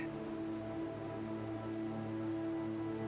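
Steady rain falling on a surface, a continuous dense patter with no individual drops standing out, even in level throughout, underlaid by a soft sustained musical drone.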